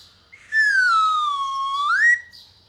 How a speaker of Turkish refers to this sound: Tren düdüğünü duydunuz. Trenin düdüğü biraz ufak. Biraz ufak bir düdük ama ne yapalım ötüyor mu ötüyor.